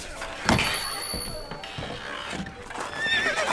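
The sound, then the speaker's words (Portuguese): Hooves clop unevenly on hard ground, then a horse lets out a high, wavering whinny near the end, with faint background bustle underneath. “Vamos, rapazes, os cavalos estão prontos.”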